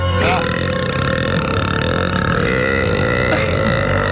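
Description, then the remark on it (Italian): A long, loud, rumbling burp drawn out over several seconds, dominating the whole clip with a gurgling, throaty drone. “Pazzo che ruttone.”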